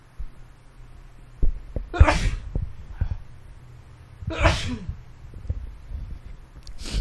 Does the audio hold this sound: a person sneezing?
yes